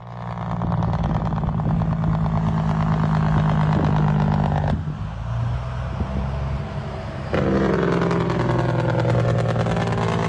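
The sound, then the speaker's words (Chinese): A loud diesel truck Jake brake (engine brake) roars with a rapid, rattling staccato over a deep, steady low drone. The sound shifts twice, dipping briefly, then swells again with a rising pitch. No one speaks. “OK，这里边我找到网上的一些 jake brake 这种呃引擎制动的声音哈，大家可以欣赏一下，这个还挺吵的。”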